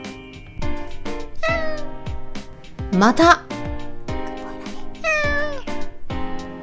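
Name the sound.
domestic cat meowing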